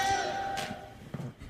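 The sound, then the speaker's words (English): A phone's electronic notification chime for incoming messages rings out with a sustained tonal ring that fades over about a second, followed by faint murmurs of voices. “That is my phone. I'm sorry.”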